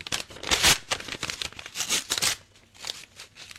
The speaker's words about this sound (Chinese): 就是把信封撕碎了，才取出了这一元钱。